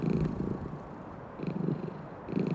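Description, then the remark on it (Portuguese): An orange cat named Lola purrs steadily while kneading with its paw on a balcony, a low rumbling drone pulsing in soft waves with each breath, continuous and fairly quiet with no voices. “Para de amassar pão com a patinha e deita logo no meu colo.”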